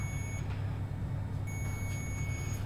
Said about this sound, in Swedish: Då hör vi att både telefonen sa till, men också själva den här enheten med temperaturen på. Piper också och blinkar för att tala om att nu är maten färdig.